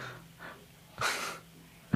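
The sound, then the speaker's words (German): A tired person yawns: a couple of soft breathy inhales, then a long, airy, drawn-out exhale that swells and fades, ending with a short sharp breath. No one speaks. “I'm yawning all the time.”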